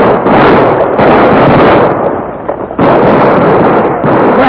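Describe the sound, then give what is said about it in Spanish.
A loud, dense volley of gunfire from soldiers shooting at a galloping rider on horseback, rapid overlapping shots blurring into a continuous crackling roar that dips briefly in the middle before resuming at full intensity. “¡Fuego, soldado! ¡Fuego sobre él!”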